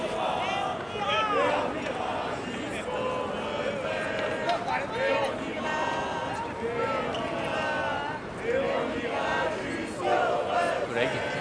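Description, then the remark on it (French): A dense, bustling crowd fills Place de la République at 3:43 pm on Wednesday 1 February 2023, many overlapping voices chattering and calling out continuously, with occasional louder shouts rising above the steady murmur. “Il est 15h43 et on est place de la République. La place est plutôt dense.”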